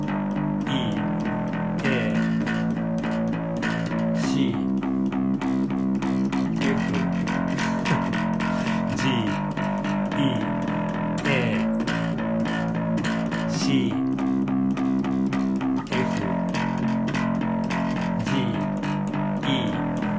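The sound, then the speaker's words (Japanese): A lone bass guitar chugs out steady, even eighth notes on the roots A, C, F, G and E, shifting to a new root note every couple of seconds, with a slightly gritty, effected tone at a constant, moderate volume. “ACFGE でいきますか ACFGE ね A C F G E こんな感じで8ビットで”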